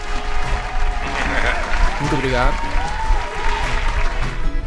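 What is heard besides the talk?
applause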